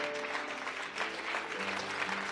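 An audience applauds the Lord in the morning, steadily, a dense wash of many hands clapping at an even loudness, with a low sustained musical tone running underneath.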